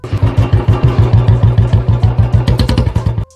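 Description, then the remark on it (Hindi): A Royal Enfield Bullet motorcycle engine idles with a loud, steady thump-thump beat, about six pulses a second, then cuts off abruptly near the end. “इंसान के मुंह से निकली हुई सुरली आवाज या बुलेट से निकली हुई धक धक”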